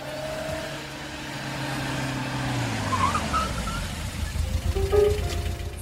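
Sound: car driving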